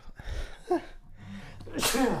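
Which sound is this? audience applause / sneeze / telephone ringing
sneeze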